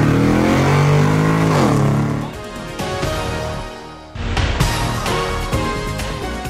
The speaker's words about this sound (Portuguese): engata a primeira e acelera.